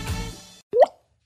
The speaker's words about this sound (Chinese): 这是落泪的声音，也是心淌血的声音，也是尿失禁的声音。